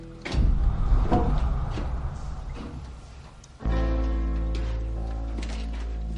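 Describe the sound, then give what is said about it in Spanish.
A heavy iron door, hidden in the wall at the back of a basement hall and leading to a narrow underground stairway, grinds and scrapes open with a few clunks, then gives way to a loud, steady, low resonant drone that lingers to the end. No voices. “Al fondo de la sala hay una puerta de hierro en la pared que no se ve a simple vista.”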